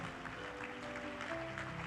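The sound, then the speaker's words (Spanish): An audience at a church service claps steadily in a dense, continuous wash of applause for the Lord, with sustained tones from instruments or voices humming underneath and no clear speech. “Las añadiduras son las bendiciones que vienen cuando tú le obedeces un aplauso al Señor.”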